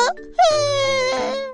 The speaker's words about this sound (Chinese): 爱哭公主大哭起来。他坐着哭，躺着哭，趴着哭，滚来滚去，一直哭，哭声越来越大，整个派对的现场都乱了。